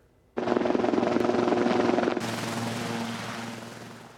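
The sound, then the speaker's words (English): A helicopter of the annual Air Ambulance Toy Flights, carrying Santa and his entourage, roars in to land at BC Children's Hospital, its loud rotor thumping in a fast steady chop over a deep engine hum that turns brighter and whinier partway through, with no voices. “That is Santa and his entourage landing at BC Children's Hospital today.”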